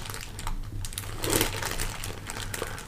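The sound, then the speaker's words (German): Crinkly rustling of a bag of hazelnut biscuits being handled on a bench by the water of the Schlei, a steady run of papery crackles that swells briefly in the middle, with no voices. “Und da setzen wir beide uns hin haben die Tüte mit den Haselnussplättchen.”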